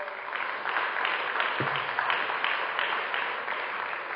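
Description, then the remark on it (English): A crowd claps steadily and fairly loudly for a men's core group invited to come forward at a religious gathering. A dense wash of many hands applauds at once for several seconds, with no one speaking over it. “Please give them a round of applause.”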